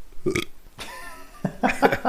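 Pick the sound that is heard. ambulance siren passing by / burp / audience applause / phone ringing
burp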